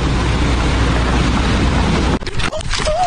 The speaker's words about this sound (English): Oh, my gosh. I- got hit by a car, but I'm okay. I just got hit by a car, but I'm well, okay